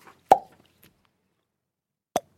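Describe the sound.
Two sharp mouth pops, fairly loud, the first with a brief resonant ring, the second following about two seconds later after near silence.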